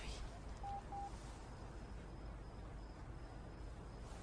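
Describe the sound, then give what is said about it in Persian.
Two short, faint keypad beeps in quick succession as a phone number is dialed again, over a steady background hiss with no talking. “خب دوباره بگیر یه بار دیگه”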